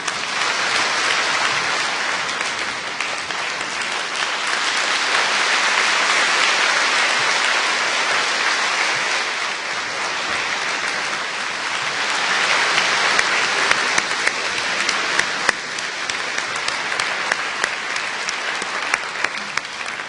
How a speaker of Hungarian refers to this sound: Kérem, szerető tapsukkal fogadják.